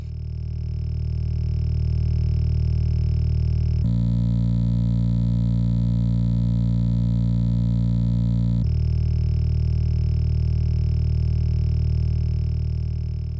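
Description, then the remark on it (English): A buzzy, distorted chiptune bass line plays alone, its steady low tones rich in harmonics, shifting to a different note pattern midway before returning, with no voices. “creates that really weird buzzy sound, uh, yeah, that buzzy yeah. bass line.”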